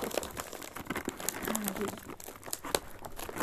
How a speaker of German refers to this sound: Okay, es ist halt richtig nervig, dass wir diese Verpackung aufmachen.